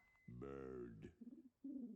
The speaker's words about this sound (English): Bird. Bird. Stay off the comp. Bird.